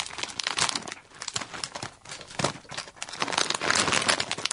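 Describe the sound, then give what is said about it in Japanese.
An individually wrapped packet of curry-flavored arare rice crackers, a Chigasaki specialty, crinkles and crackles continuously as it is handled and torn open, a bright, papery rustle with sharper bursts, fairly loud with no talking over it. “はい、一つずつ、こう、個包装になって個包装になっております。”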